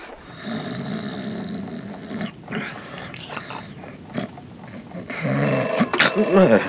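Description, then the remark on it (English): A telephone bell rings in bursts, fairly loud, alongside low rumbling, snore-like noises, with the ringing growing stronger toward the end. “Surely I don't make a noise like a bell. I wouldn't put it past you. Telephone.”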